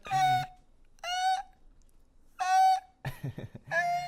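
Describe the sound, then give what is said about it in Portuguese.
A voice imitates the squeal of a balloon whose tip is pinched and pulled a little to the side: five short, shrill, nasal squeaks with brief pauses between them and the last two bursts running together. “esse barulho que uma bexiga faz você pegar a pontinha dela e puxar um pouquinho pro lado, assim, não é?”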